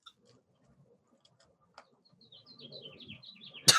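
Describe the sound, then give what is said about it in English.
Birds chirping in a quick run of high, bright notes that step downward, starting after a near-silent moment over a soft low rumble and ending in a sudden loud burst of noise. “Birds are twerking like crazy.”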